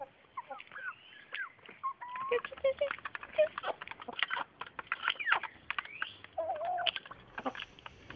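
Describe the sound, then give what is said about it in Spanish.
Chickens cluck and chatter steadily, a busy overlapping mix of short calls and squawks with a faint rustle underneath. “Aún nos falta limpiar los frijoles y que las gallinas coman.”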